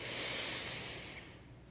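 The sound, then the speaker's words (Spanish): A single long, steady nasal inhalation during a guided breathing exercise, a breathy hiss that holds strong for about a second before gradually tapering off. No one speaks. “Entonces vamos a seguir unas 3, 4 veces, vuelves a inhalar”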